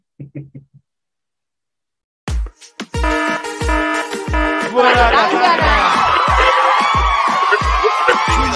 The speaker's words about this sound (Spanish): duro esa alarma.